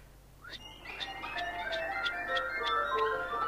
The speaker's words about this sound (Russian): А есть такая порода уток. Когда они летят, то их крылья, рассекая воздух, точно поют, или лучше сказать, посвистывают. Раздается в воздухе, когда летит высоко над вами стадо таких уток. А их самих даже не видно, так высоко они летят.